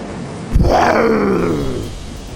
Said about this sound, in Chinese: 一声极为逼真的兽吼声在御兽师中响起